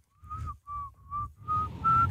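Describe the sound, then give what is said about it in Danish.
A person whistles a series of short, steady low-pitched notes, five or so in a row with brief gaps, clear, with breathy noise underneath and no talking. “Jeg skal jo ikke? nærmest lave dobbelthage, hvis jeg skal fløjte mørkt.”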